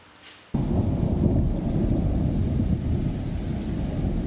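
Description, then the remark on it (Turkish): A loud crack of thunder breaks in suddenly and rolls on as a deep, sustained rumble, with heavy rain hissing steadily underneath throughout, during a night-time downpour with lightning in Istanbul. “İstanbul'da şimşekler geceyi gündüze çevirdi. Yurdun büyük çoğunluğu sağanak yağışa yakalandı.”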